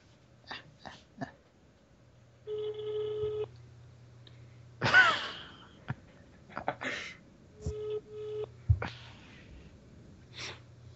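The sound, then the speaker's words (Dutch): A phone ringback tone sounds in repeated steady bursts, mixed with a low hum and a few sharp bursts of noise and clicks. “Calling Peter Optihoff.”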